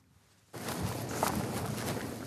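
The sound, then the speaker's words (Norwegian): Brisk footsteps of two men, police detectives, start abruptly after a moment of quiet and continue at a quick, steady pace as they walk toward a white wooden house in Løten, Hedmark. The steps are moderately loud over a dense rustling background, with no talking. “To menn går med raske skritt inn mot et hvitt trehus på Løten i Hedmark.”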